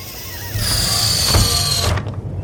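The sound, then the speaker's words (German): The hatch door of an Orion space capsule slides shut with a sustained rolling, rumbling scrape that ends in a soft thump, with no talking. “Aber macht doch bitte, bitte erstmal die Luke dicht.”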